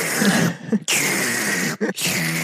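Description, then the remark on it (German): A voice mimics a breast pump expressing milk with three loud, breathy, hissing pulses in a steady rhythm, each cut off by a brief pause. “was dir wiederum nur Freiheit einräumt, wenn du mit einer Milchpumpe abpumpst.”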